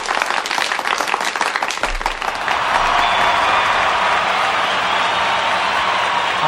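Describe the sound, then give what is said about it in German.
A weak round of applause from a group, beginning with scattered individual claps that soon blend into a steady, even wash of clapping at moderate volume, with no voices. “Das ist aber ein schwacher Applaus, oder?”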